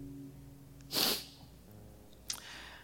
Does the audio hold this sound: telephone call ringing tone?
no